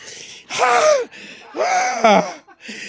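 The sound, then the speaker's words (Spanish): A voice imitates choking, with two long, strained gasping breaths and a short raspy catch between them, fairly loud, with no words. “Y empieza así la, el chorrote de sangre y el cuchillo encajado y él se empieza a ahogar en...”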